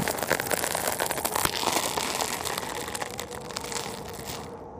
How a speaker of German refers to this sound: Plötzlich knackt es laut. Das Eis unter dem Schlitten scheint nachzugeben. Kleine Risse ziehen sich zwischen den Kufen in alle Richtungen.